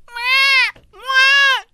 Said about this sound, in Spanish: Va a empezar un niño llorando.